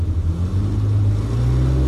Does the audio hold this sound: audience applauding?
no